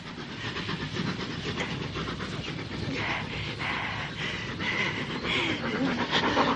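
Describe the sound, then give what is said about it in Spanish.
An approaching train: a dense, steady rumble with hissy, rhythmic chugging and clatter that grows slightly louder toward the end, with no voices. “Lorenz se vuelve indeciso al oír el ruido del tren.”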